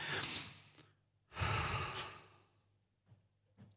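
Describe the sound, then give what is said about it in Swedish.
A person demonstrates slow, controlled childbirth-preparation breathing: two long, deliberate breaths, fairly loud, the second a drawn-out exhale, followed by a couple of faint small sounds. “höra, hur andades du?”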